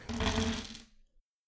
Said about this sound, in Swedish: Då gör vi den här traditionsenliga nio tärningarna som man kan få slå.